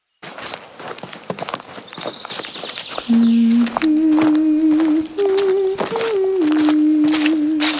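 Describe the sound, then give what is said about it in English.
Horse hooves clip-clop in a quick, steady rhythm, getting a bit louder as they approach, while a sustained low tune of held notes joins partway through. Nobody speaks. The hooves are those of the summoned Static Stallion. “Cal summoning! Static Stallion!”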